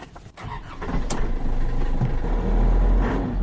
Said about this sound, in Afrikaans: Die masjien is maar lawaaierig, maar dis gebaseer op 'n vorige generasie Isuzu bakkies en so hy behoort betroubaar te wees. Die 2.8 ter bediesel skop 80 kW en 240 Nm uit.